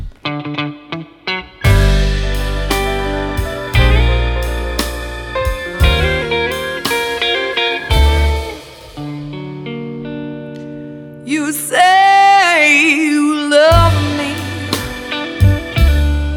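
A slow soul ballad, the singer's own composition, opens with warm sustained chords and a deep bass, then a bending, wavering lead line rises briefly before the full band settles back in. Loud, with no talking.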